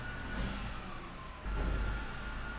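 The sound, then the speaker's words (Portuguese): A garbage truck engine rumbles steadily outside with deep low-end noise, a faint whine running through it, then grows louder partway through as if revving. No one speaks. “O caminhão de lixo aqui tá infernal.”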